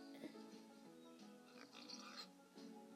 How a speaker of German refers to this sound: Jetzt kommen noch mehr Schweine.